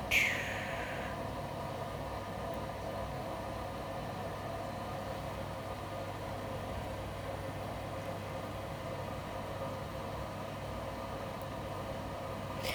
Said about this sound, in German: Ja, das ist meine Waschmaschine. Die hatte ich mir vor einigen Jahren gekauft.